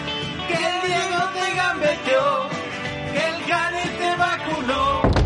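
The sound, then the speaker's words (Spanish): A guitar is played continuously while a song is rehearsed, rich in sustained chords and melodic lines, fairly loud, before cutting off abruptly near the end. “está tocando con la guitarra, está ensayando una canción que, bueno, es que ya no la soporto más.”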